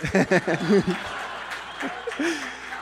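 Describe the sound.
A burst of voiced laughter gives way to a steady wash of audience applause, a dense crackle of clapping that carries on at moderate loudness for a couple of seconds.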